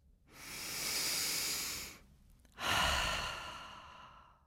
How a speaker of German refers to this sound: Aber wie geht das mit dem deutlichen Einatmen als perfekte Vorbereitung? Extra laut und extra lang? So vielleicht?